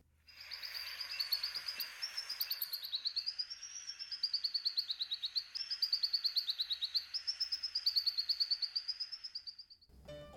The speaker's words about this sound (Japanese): 今日ご紹介するウガンダの鳥はルリガシラ太陽鳥です